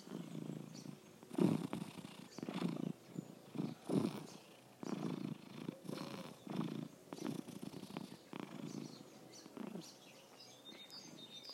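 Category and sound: animal, cat purring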